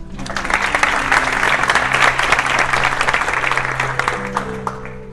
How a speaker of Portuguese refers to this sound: Uma salva de palmas para ela.